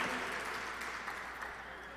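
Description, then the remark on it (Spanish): An audience applauding for Jesus Christ, a steady dense wash of many hands clapping at once, sustained and fairly loud throughout with no distinct individual claps standing out. “Dele fuerte ese aplauso a, a Jesucristo.”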